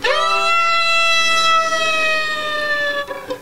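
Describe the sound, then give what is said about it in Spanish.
A sustained, harmonically rich tone played as a siren-like glissando on a tango instrument slides slowly downward in pitch, held steadily and fairly loud for several seconds before fading, with no talking. “Hacer la sirena, a ver.”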